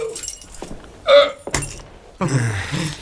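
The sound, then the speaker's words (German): A set of keys, including the key to the cellar, is tossed and caught, giving a bright metallic jangle followed by a sharp catch and a second burst of rattling keys. “Das ist der Schlüssel zum Keller.”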